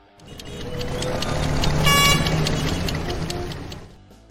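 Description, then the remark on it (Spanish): Busy street traffic rumbles steadily while several car horns honk, with one loud, sustained blast in the middle swelling over the engine noise before fading. “vamos a ver cómo está el tránsito, vamos allá.”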